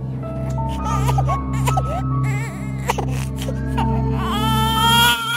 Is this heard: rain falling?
no